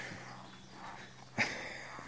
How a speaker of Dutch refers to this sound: ik heb schoenen die kraken op een Oh, is dat het? Ja, dat is heel raar. ik heb krakende schoenen gekregen.